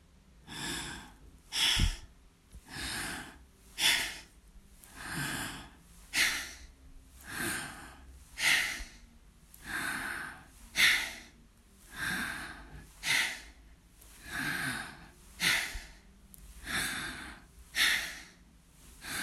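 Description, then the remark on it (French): Loud, steady breathing in and out through both nostrils during a belly-breathing exercise, roughly fifteen forceful breaths in a regular, fairly quick rhythm, alone with no talking. “Euh, je n'ai pas précisé que la respiration, elle se fait uniquement avec les deux narines.”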